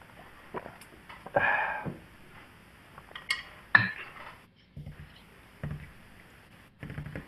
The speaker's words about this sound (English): Yeah, I mean, I'm gonna, I'm at least gonna uh, maintain some sort of facade of decorum around my constant beer drinking and pour it into a glass.